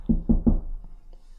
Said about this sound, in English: So knock on the door